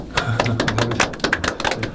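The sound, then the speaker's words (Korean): A small group clapping, with quick, irregular sharp claps overlapping in a steady patter that holds at an even, fairly loud level for the full two seconds. No one speaks. “훌륭합니다. 박수.”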